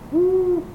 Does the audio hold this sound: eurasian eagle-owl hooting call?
yes